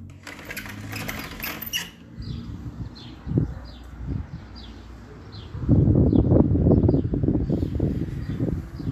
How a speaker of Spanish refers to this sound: Todavía tenemos aire fresco y pájaros cantando. Y un auto pasando por la calle.